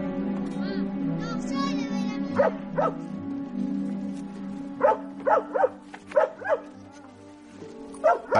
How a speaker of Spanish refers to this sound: llegar al embarcadero, el perro le ladra repetidas veces mientras se baja de la barca.